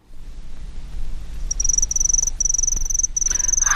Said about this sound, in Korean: 귀뚜라미 소리 한번 더 듣죠.